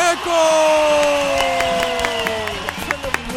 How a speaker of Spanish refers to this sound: Un aplauso a la divulgadora de la jiribilla